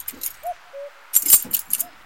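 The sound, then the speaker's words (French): A bunch of keys jingles in a pocket in a few bright metallic rustling bursts, with short soft tonal calls faintly heard in the pauses between them. “Ah zut Je n'ai que mon trousseau de clés Tant pis”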